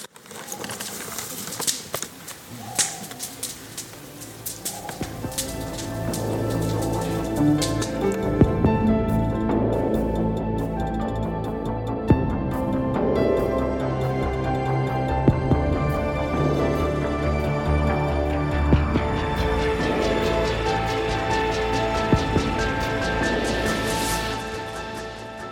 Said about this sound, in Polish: Oddajmy się jeszcze przez chwilę kojącemu dźwiękowi trzaskającego ogniska.